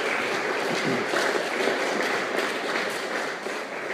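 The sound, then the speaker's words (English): An audience breaks into a round of applause as a guest speaker is invited up, a dense, steady wash of many hands clapping at once that holds at full strength for several seconds with no talking over it. “would you all give him a big round of applause and we invite him up here.”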